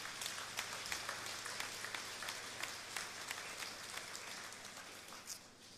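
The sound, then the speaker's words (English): An audience claps together for a team of leaders in a steady wash of overlapping hand claps, sustained and fairly soft throughout, with no voices standing out above the applause. “Uh, God has put them on this team for a reason, so we can give them a clap, yeah.”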